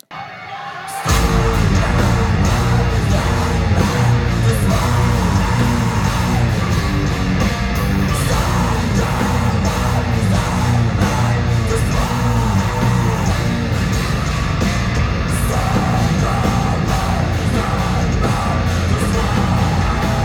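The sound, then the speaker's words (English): After a second of near silence, a loud, dense wall of live concert sound erupts: a crowd yelling and cheering over heavy, driving music as the song breaks into its screamo portion, sustained and unbroken to the end. “And then it busts into the screamo portion of the song, and the crowd is just loving it.”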